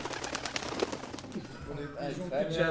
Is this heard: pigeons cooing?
yes